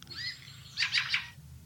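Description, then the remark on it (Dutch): A bird's short call as it flies over a house: a thin, high whistle followed by three quick, bright, buzzy notes in a rapid run, over a faint low rumble and with no voices. “Ja, dat is het geluid zeg maar, wat ze maken als ze over het huis vliegen.”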